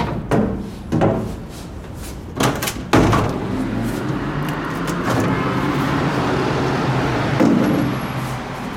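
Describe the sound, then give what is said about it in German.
A few clunks and rattles as an apartment window is unlatched and swung open give way to a steady wash of busy street traffic near a traffic-light intersection, cars rumbling past and continuing throughout. “Also ich mache mal das Fenster auf.”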